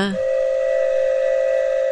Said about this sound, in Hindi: train का engine कोयले और भाप से चलता था ट्रेन चलने से पहले इंजन सीटी बजाता था